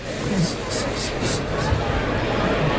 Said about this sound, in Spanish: Tomás Campozano, esa es la respiración del toro. Ahí la oímos.